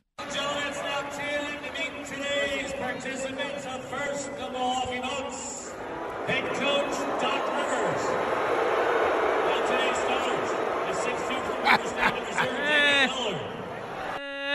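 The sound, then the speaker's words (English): A PA announcer's booming voice echoes through a large arena during introductions, then a broad, muted wave of crowd booing swells underneath and holds steady, fairly subdued rather than thunderous. “That's a weak boo.”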